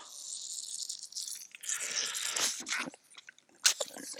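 Someone struggles to open an old Solo soda bottle, an original made in 1934: a few seconds of scraping, rattling and crunching of the cap, ending in a sharp click, with no talking.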